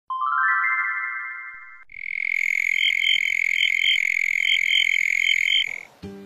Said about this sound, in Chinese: 火帽子找到一只金铃子，金铃子唱歌的声音真好听。大家都很喜欢听。